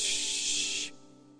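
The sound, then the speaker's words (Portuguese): Static from a radio tuned to a frequency where no one is broadcasting: a steady, bright hiss for just under a second, then it cuts off abruptly, leaving only a faint low hum. No one speaks. “Quando você cai numa frequência que não tem ninguém falando, ninguém se comunicando ali, fica um chiado.”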